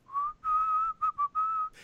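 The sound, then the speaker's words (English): Someone whistles a short melodic phrase: a sustained opening note, two quick clipped notes, then a held tone, all clear and alone with no talking. “every time I whistle, I've mentioned it on the show before. It's …”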